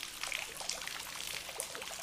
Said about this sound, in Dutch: Kijk, je vult het bad met water en dan kan je lekker gaan liggen.